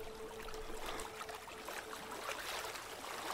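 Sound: small boat on water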